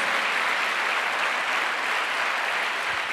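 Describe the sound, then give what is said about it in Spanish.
An audience applauds loudly and steadily in praise of God during a sermon, a dense wash of many hands clapping that holds an even level for the full few seconds with no voices standing out. “Dale fuerte ese aplauso al que vive por los siglos de los siglos.”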